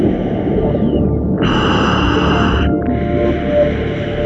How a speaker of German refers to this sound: Alles ist still, nur das eigene Atemgeräusch mit Luft aus der Pressluftflasche ist zu hören. Die vielen Luftblasen steigen blubbernd nach oben an die Wasseroberfläche.